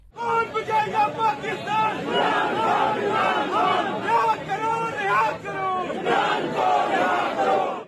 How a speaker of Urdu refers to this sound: عدالتی فیصلے کے بعد وکلا نے خوشی منائی اور چیئرمین پی ٹی آئی کے حق میں نعرے بازی کی